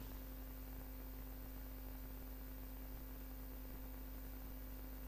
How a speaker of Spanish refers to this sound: Me distrae un poquito los ventiladores de adelante, al menos los, del, los de adelante de todo.